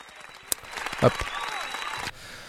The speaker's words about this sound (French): Je t'applaudis. C'est cool.